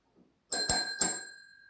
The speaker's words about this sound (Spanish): nos ganó el timbre.